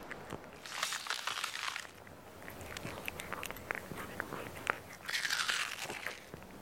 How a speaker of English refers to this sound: It's so hungry that it crunches away its egg and it's still hungry. So it keeps on eating. It eats the leaf its egg has hung from, and it is still hungry.